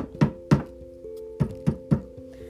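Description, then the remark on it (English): Five dull, soft thunks of a mushy, slightly rotting object being tapped against a desk, two close together then three in a quicker run, muffled and low with no crisp edge. “When they should, so like, here, I'm gonna tap it against my desk.”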